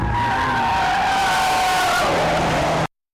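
A loud, sustained tire screech as a car skids hard to a halt, the high squeal sliding and fading before cutting off abruptly after about three seconds.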